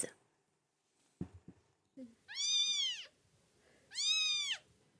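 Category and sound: animal, kittens meowing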